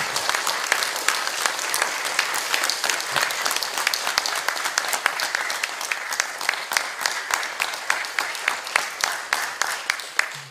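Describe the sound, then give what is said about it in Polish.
Sustained applause from a sizable audience, many hands clapping densely and steadily for about ten seconds, fairly loud, with faint crowd murmur underneath and no clear speech. “Szanowni bracia i siostry, te brawa są dla mnie absolutnie niezasłużone.”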